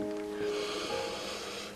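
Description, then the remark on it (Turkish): A long, steady deep breath taken while lying in a sleeping position, airy and breathy, lasting nearly two seconds at moderate loudness, with faint tones held underneath and no talking. “kocaman büyük bir nefes aldık ve verirken tüm yorgunluğumuz uçup gittiğini hissediyoruz.”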